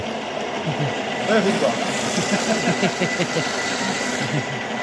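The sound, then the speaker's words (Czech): A kitchen blender runs steadily, its loud whirring motor drone carrying a rapid, rhythmic chugging pulse as it purées a mixture cooked with cream, with butter added, for several seconds without stopping, in the French restaurant Art Nouveau at the Municipal House (Obecní dům) in Prague. “No, teď nastane ten správný zvuk. A rozmixujeme teda.”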